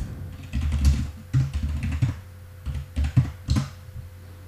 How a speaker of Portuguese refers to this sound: Só deixa eu conferir que eu estou falando e digitando e geralmente isso não funciona muito bem.